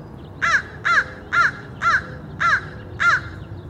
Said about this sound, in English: Every week it's the same thing. The garbage trucks come by early in the morning, and then in comes the sound of crows squawking in the trees and perching on telephone poles nearby.